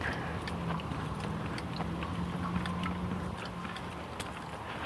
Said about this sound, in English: Mostly I hear traffic.